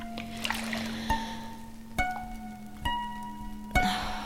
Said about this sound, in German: Rosie lässt sich in die Badewanne sinken.